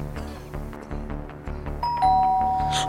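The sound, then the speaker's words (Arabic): A doorbell rings out with a clear two-tone chime, bright sustained notes ringing over a steady low hum, with no talking during the ring. “قومي افتحي قومي وصلوا”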